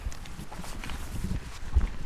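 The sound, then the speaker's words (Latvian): Steady footsteps walk along a highway, a dull rhythmic tread over a low outdoor rumble, with no voices. “Esam atkal nonākuši uz šosejas un turpināsim soļot pretim šīs dienas galamērķim.”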